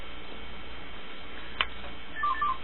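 A quiet hum, then a short electronic alert from a mobile phone near the end: a few quick, soft beeping tones in a rapid pattern, a message notification chime for an incoming message from the owner's son.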